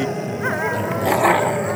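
Several dogs snarl and growl in a dense, continuous tangle, with sharp barks and yips breaking through, fairly loud throughout.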